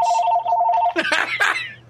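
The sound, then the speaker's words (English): A mobile phone rings with a steady, rapidly pulsing electronic tone for about a second, then the sound shifts into louder, warbling, melodic bursts. It is fairly prominent. “I muted the ringer, both of them. He's got two phones.”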